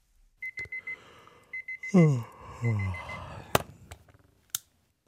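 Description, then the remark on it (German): Rapid bursts of a digital alarm clock beeping in quick groups in the morning, then a groan-like voice and a couple of sharp clicks as it's switched off, with rustling in between. “Wecker aus, Licht an, Augen reiben über die trockenen Mundwinkel wischen, den plattgelegenen Bart kratzen.”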